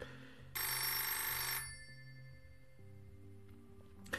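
A loud, bright telephone bell, an incoming call on a studio's emergency direct contact line, rings in one sustained burst of about a second, then cuts off, leaving a low background hum with a faint click at the end; no one speaks.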